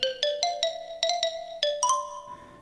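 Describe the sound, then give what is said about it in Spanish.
A short, bright marimba melody of about ten struck notes, each ringing briefly, played at a lively, uneven rhythm with no voices. “Y con el sonido misterioso de una marimba”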